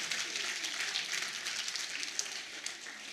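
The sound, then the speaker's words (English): A church audience at Anchor applauds itself: a dense, steady patter of many hands clapping together that holds evenly for about three seconds at a fairly soft level, with no voices over it. “You are the, the real MVPs in this church, and so I think you deserve to give yourself a round of applause and a pat on the back and say, Well done.”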